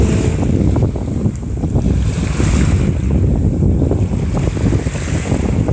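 Waves surge and crash continuously against the shore of a beach while strong wind roars and buffets the microphone, making the waves rougher and noisier than usual, a loud, churning wash of noise with no voices.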